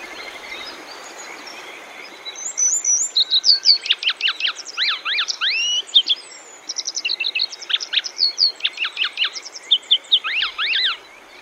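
A grey wagtail calls repeatedly on the Bōsō Peninsula, Chiba Prefecture, Japan, with sharp, high, quick chirps in rapid bursts and short clusters, clear over a steady low background hiss. No one speaks.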